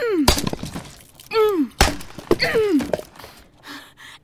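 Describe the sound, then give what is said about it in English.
An axe smashes through a wooden wall in about three heavy, splintering blows, separated by long, falling, groan-like creaks of straining wood, then a softer crackle of debris. “You mean I could have been out of here ages ago if they just grabbed a damn axe?”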